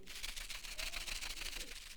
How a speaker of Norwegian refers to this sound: Det første jeg kan ta det fram, så dere ikke sitter og tenker hele på hva det er. Men det er en papirpose og oppi i den så er det faktisk eh, noen ting